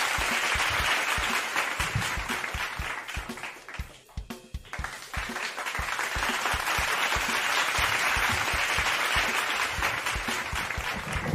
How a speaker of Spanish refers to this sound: ¿Por qué no se oyen los aplausos?